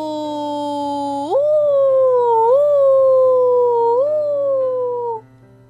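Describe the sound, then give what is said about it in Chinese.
Bronty, a character in a children's story, howls like a ghost: a long, eerie howl that starts low, swoops upward after a second, then wavers and slowly sags in pitch before cutting off, over a faint steady low hum. “布朗提像鬼一样嚎叫着，托比和蒂娜的耳朵开始嗡嗡响。”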